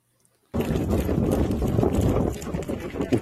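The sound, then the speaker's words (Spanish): Running footsteps of a person pound along in a quick, steady rhythm, loud, bursting in suddenly after a brief silence and continuing for about three seconds with a dense, gritty texture. “sabe quién es esa persona que está corriendo?”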